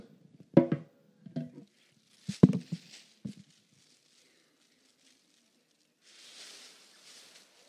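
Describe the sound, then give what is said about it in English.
Breaths blowing up a seven-foot balloon: four short, forceful puffs with rubbery squeaking in quick succession, a pause, then a softer, airy hiss toward the end. No one speaks. “We will see how many breaths it takes to blow this up.”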